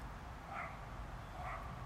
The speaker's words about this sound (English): Listen to that freaking dog of mine. Just knowing I gotta go get him.